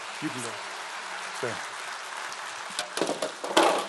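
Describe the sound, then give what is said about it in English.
An audience claps in a steady, noisy wash of applause, with a few brief voices cutting through and some sharper claps swelling near the end. “Give him a round of applause.”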